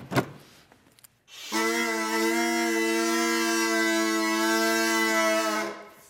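A homemade bagpipe, built from electrical insulation tubes from a hardware store with reeds cut from plastic sheet protectors, sounds its drone accompaniment tone: a loud, steady, reedy, buzzing tone rich in overtones that holds one unwavering pitch for about four seconds, preceded by a few faint clicks and rustles.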